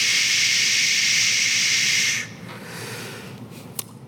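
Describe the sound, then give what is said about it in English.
A voice imitates the hissing of a sink tap left running with a steady, loud 'shh' lasting about two seconds, then cuts off into quiet with a brief click near the end. “And so I was listening, and the noise sounded like this it was shh.”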